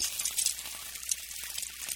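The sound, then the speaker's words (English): Steady crackling sizzle, like food frying in a hot pan, with a bright hiss and small popping bursts throughout, fairly quiet and with no voices; a sound effect for the Arizona sun cooking roofs. “the sun cooks them.”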